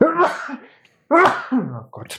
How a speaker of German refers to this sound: Gesundheit.